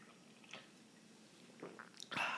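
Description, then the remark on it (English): A few soft wet mouth sounds, then a brief louder slurp as someone sips Trader Joe's fair trade organic Bolivian blend coffee from a Contigo Auto Seal Aria travel mug, with no talking. “I just took a sip. It's delicious.”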